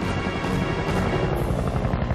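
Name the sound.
helicopter rotor noise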